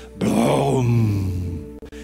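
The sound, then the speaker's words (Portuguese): A man's voice imitates a thunderclap with a single loud, drawn-out groaning rumble that slides downward in pitch and fades after about a second and a half. “A energia liberada no relâmpago, irmãos, é tão poderosa, tão poderosa, que ela libera um estrondo.”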